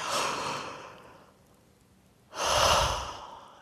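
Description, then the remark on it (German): A big, exaggerated yawn done as a well-being exercise: a long airy inhale, a brief pause, then a fuller, louder breathy exhale that trails off. No talking. “Jawohl, ganz groß zu gähnen.”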